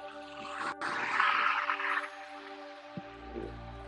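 Street traffic hums steadily around the listener in the early morning, with a vehicle whooshing past during the first couple of seconds and a deep engine rumble rising near the end. No one speaks.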